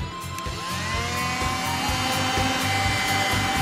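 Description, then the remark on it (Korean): A high-speed electric motor, one that can be attached to a boat to ride on water, whirs steadily and loudly for the whole stretch, its tone rising slightly at the start and then holding a constant, buzzing whine. “여러분 들으시죠? 기가 막힙니다. 어, 모터 소리 보세요.”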